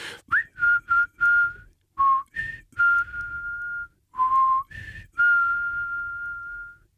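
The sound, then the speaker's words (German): A person whistles a loud call: a quick run of short chirpy notes, then two sustained tones, the last held long and steady as it fades. “Ich möchte deshalb zum Schluss nochmal deinen Pfiff hören”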